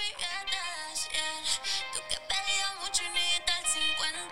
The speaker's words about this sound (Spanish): Vas a escuchar cuatro canciones diferentes. Todas en un remix.